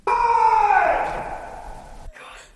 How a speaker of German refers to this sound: Ihr habt gerade einen Schrei gehört der war einfach random da, als wir anfangen wollten, Podcast zu machen. Und wir haben uns so erschrocken. Aber er passt zum Thema.